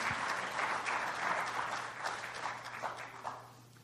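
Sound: audience clapping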